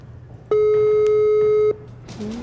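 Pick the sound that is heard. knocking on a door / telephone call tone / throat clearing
telephone call tone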